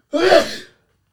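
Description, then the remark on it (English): A single sharp sneeze bursts out, a quick loud breathy blast that cuts off abruptly after about half a second, leaving silence. “Bless you.”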